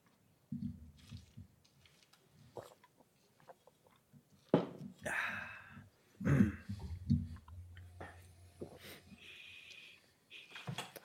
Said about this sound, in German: Ich trinke jetzt auch mal einen kräftigen Schluck mhm. Wasser zwischen rein.